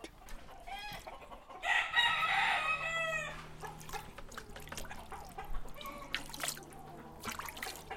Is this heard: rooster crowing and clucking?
yes